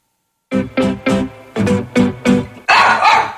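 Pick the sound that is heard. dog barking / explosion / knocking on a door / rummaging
dog barking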